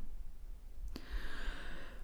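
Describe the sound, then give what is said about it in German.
A single soft, breathy snore drawn out over about a second after a faint click, quiet, with no talking around it. “ist eingeschlafen, sie schnarcht.”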